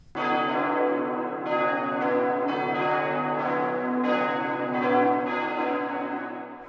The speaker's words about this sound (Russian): Колокол издал совсем не такой звук, как обычно.